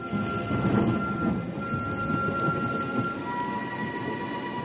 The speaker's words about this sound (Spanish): Suena el reloj de Vernon.